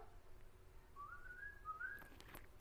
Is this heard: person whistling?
yes